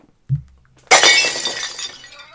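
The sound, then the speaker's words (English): A dull low thud, then a loud crash of glass shattering, with bright scattered shards tinkling and settling for over a second afterward; clear, no voices. “Breaking glass.”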